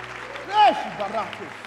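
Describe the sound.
Scattered clapping from a crowd fills the background while a loud, drawn-out voiced shout rises and falls over it, followed by a few shorter vocal bursts, as people shout and applaud to the Lord.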